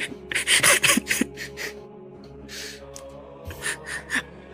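A chair is dragged across a hard floor in a cluster of rough, noisy bursts as someone sits down beside the scholars, followed by a few softer, shorter scrapes over a low steady hum, with no one speaking.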